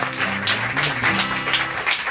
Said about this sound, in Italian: Partirei sì. da un applauso. Per, meglio, meglio che la fate prima l'applauso perché dopo potreste non farlo.